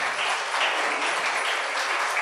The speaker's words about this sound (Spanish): Un aplauso para